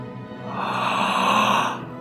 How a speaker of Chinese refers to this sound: 啊！爷爷打了个大大的哈欠